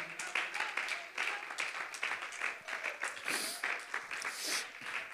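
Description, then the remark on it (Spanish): A church audience at a morning service applauds the presence of God for several seconds, a dense, crackling wash of many hands clapping at once with no pause, holding fairly loud throughout, with a few voices faintly mixed in. “Si es tu deseo, hermano, aplaude la presencia de Dios en esta mañana.”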